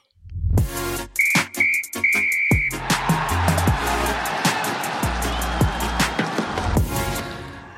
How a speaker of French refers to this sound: Eh bien, on siffle la fin du match.